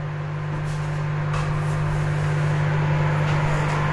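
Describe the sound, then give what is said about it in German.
A microwave oven heating up leftover food runs with a steady electrical hum and low drone that holds at an even level throughout, with no voices and no change in pitch. “Mikrowelle läuft.”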